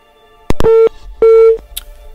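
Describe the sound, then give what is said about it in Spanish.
Two steady telephone line tones, each about a quarter second long and mid-pitched, separated by a short gap and preceded by sharp clicks, as a phone call is taken on Patrón FM radio, with no voices present. “Bueno, voy a la llamada telefónica del patrón FM, hola.”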